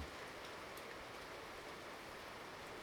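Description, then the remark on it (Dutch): Rain begins to fall, pattering down in a dense, even hiss of countless drops, holding a constant, fairly soft level throughout with no voices. “En nu begint het te regenen.”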